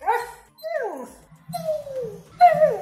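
A dog whimpers in a series of four high, drawn-out whines, each sliding downward in pitch, with a faint low hum underneath and no talking.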